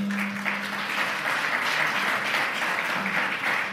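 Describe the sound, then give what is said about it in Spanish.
An audience at a church service bursts into sustained, dense applause for the Lord, many hands clapping together in a steady, enveloping wash of sound that stays loud throughout with no speech over it. “Denle un fuerte aplauso al Señor.”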